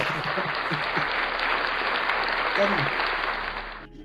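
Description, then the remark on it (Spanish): Loud, sustained applause from an audience, a dense wash of clapping that holds steady for about four seconds before stopping abruptly, with faint voices mixed underneath. “Fuertes aplausos.”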